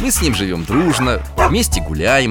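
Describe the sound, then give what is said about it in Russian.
A pet dog named Altai lets out several sharp, yelping barks in an uneven rhythm as a greeting while a man keeps talking over them. “А это мой пес Алтай вас приветствует.”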